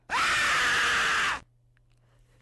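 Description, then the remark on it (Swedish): A sudden, loud, harsh scream from a large scary zombie popping up on a computer screen in a prank video bursts in for just over a second, then cuts off abruptly into a quiet low hum. “Och ett stort läskig zombie dyker upp på skärmen och skriker.”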